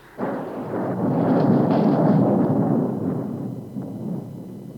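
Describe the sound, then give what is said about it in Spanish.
A loud crack of thunder bursts in suddenly as lightning strikes a dry tree and sets it on fire during a strong storm, rolling into a heavy, deep rumble that fills the rest of the storm scene, slowly fading a little, with no voices. “Una fuerte tormenta se desató en esos momentos y al caer un rayo sobre un árbol seco lo incendió como yesca.”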